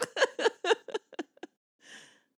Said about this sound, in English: so, take a sniff.